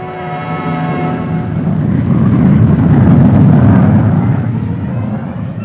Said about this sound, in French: concevoir un nouvel appareil, un avion à réaction supersonique capable de détruire les intercepteurs ennemis avant qu'ils atteignent leur cible en Amérique du Nord. Cet avion, destiné à servir d'intercepteur principal de l'ARC, c'était l'Avro Arrow.